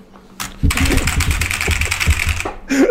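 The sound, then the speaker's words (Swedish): Frantic, rapid keyboard typing clatters loud for about two seconds in a dense, unbroken burst, in the style of computer hacking in 1990s film and TV, framed by short vocal sounds just before and after. “Åtta tangentbord!”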